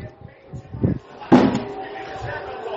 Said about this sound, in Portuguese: Pessoal, pessoal, seguinte, é, fecha a porta aí.